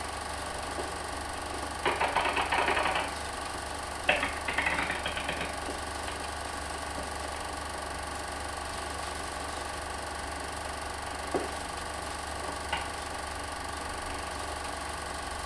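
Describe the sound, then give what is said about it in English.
Two short bursts of rapid mechanical typewriter clacking as a heading is typed, then a couple of lone keystrokes later, over a steady low hum, with no one speaking. “The carriage is now properly located to write the heading.”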